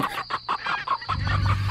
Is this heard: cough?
no